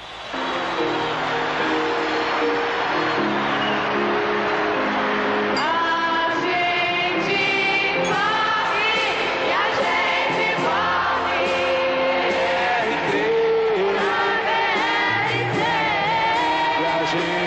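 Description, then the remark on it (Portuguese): A loud, continuous live soul song with a full band and a strong lead voice carrying the melody, performed on stage at the 5th International Song Festival at the Maracanãzinho in 1970, with a faint crowd behind it. “E … com ….”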